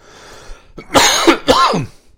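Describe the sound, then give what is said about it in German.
Two or three harsh, throaty coughs in quick succession, fairly loud, with no talking around them. “Und das Husten genauso.”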